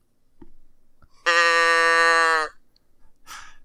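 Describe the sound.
Someone imitates a cow's moo with a single loud, sustained, buzzy low note held steady for about a second, followed by a brief breathy rustle.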